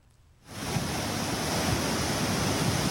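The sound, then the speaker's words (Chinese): After a brief quiet moment, a loud, steady roar of turbulent, muddy yellow floodwater from storm-driven heavy rain in Highland Falls, New York State, gushing past houses and around cars, sets in, a broad churning wash of noise with rumbling low end that continues without pause. No one speaks. “黄浊河水汹涌湍急，气势吓人。”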